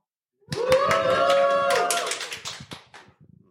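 A live audience at Vodnikova domačija in Ljubljana lets out a sustained, loud whooping cheer with scattered clapping, then the cheer fades over the last second while a few claps continue.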